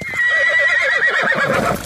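A ridden horse suddenly rears up and throws its rider, giving a loud whinny, its shrill neigh wavering rapidly up and down for nearly two seconds before breaking off into a rougher snort.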